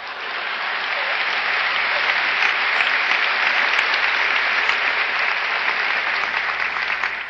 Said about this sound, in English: it's premature your applause, you will soon know why.